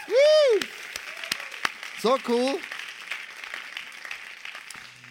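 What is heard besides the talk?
audience applause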